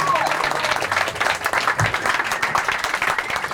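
Sustained audience applause for a performer's surprise appearance, a dense, steady wash of many hands clapping at full volume throughout, with faint crowd murmur mixed in.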